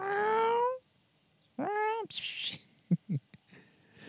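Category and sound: animal, cat meowing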